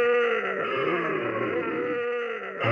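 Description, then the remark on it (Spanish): Thick, raspy creature voices groan and growl in a sustained guttural drone, loud, shifting into a rougher burst right at the end. “esos sonidos guturales de antes empiezan a volver unas voces igual de gruesas, un tanto rasposas”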